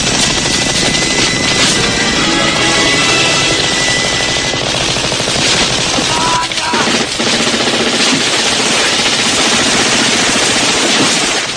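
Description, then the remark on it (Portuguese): Loud, continuous machine gun fire from a film, shot by Schwarzenegger, roars alongside the chopping thrum of a helicopter, a dense, sustained barrage of rapid shots filling the whole stretch with no voices. “O Schwarzenegger, cara, dando tiro, cara, o cara não pisca, cara. Tiro.”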